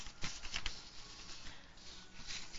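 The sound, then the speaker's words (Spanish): Steady rustling of stacks of research papers being shuffled and handled, with a few sharper crinkling bursts near the start, continuing without pause and with no voices. “Mm tengo tantos papeles, ¿verdad? De todo lo que investigamos.”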